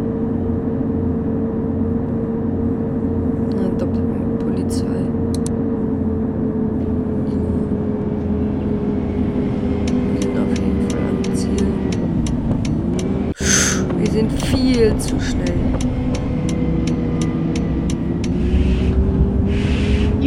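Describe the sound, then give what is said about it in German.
A simulated bus engine drones steadily at top speed while driving into the city, its low hum shifting pitch as it accelerates, with brief clicks and a sharp knock partway through; no talking. “Top Speed fahren wir hier in die Stadt.”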